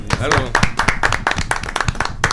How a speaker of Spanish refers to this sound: Un aplauso.